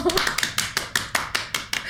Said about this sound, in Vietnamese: hết rồi cái nết hơi kỳ đó cho vỗ tay một cái